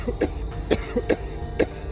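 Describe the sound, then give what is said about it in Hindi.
An elderly person coughs in a series of about five harsh, raspy bursts spaced unevenly over two seconds, fairly loud, with no talking; said to come at night from graves in Sanjay Van near Vasant Kunj. “कहा जाता है रात होने पर वहां दफन कुछ कब्रों से अजीब सी आवाजें आती हैं कभी किसी बच्चे के रोने की कभी किसी बुजुर्ग के खांसने की”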